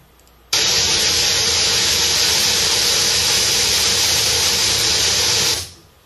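A steady, loud hiss of white noise starts abruptly, holds evenly across the whole band for about five seconds, then fades out quickly. No voices are heard.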